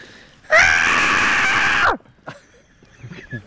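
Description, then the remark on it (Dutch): A vixen in heat lets out a harsh, piercing scream that rings out once for over a second, loud and raspy, then breaks off abruptly, followed by a few faint rustles and soft noises. “Dat is echt dat. Een geile vos.”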